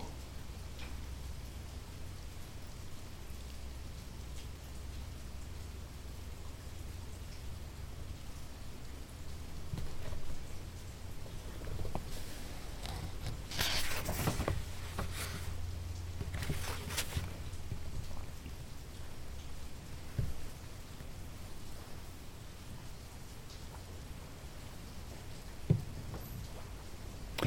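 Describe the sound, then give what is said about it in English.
Steady rain falls in a continuous soft hiss, swelling into a few louder, splashier bursts midway before settling back to an even patter. No voices are heard. “Not what's the rain, but what is hearing the rain?”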